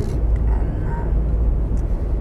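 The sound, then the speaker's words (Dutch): Steady low rumble of a car cabin on the move, engine and road noise droning evenly throughout with a faint hiss of wind, no talking. “Ik zit in de auto, zoals je hoort.”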